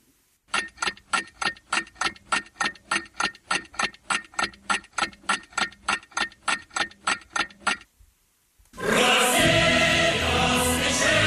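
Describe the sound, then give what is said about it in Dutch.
A clock ticks loudly and steadily, about three ticks per second, for several seconds; after a brief silence, a loud, dense wash of sound takes over. “Oké, we starten dan de klok.”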